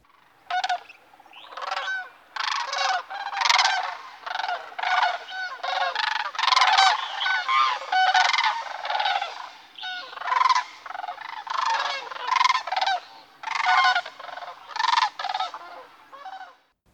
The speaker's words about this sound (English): That's the call of the sandhill crane. Their often soft, cooing, trumpeting, or bugling carries quite a distance.